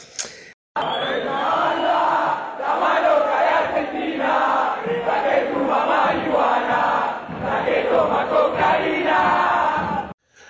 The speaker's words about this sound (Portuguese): Só deixar um recadinho para vocês que estão ouvindo aí, que ao longo do programa a gente tocou algumas alguns gritos de torcida, né? Algumas músicas esportivas.